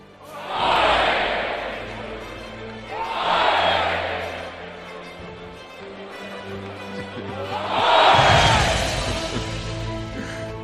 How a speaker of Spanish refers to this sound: Y estos aplausos también son para los empresarios, ganaderos y toreros de las ferias de Valencia, Castellón, Sevilla, Arles, los festejos de Arnedo, Guadalajara.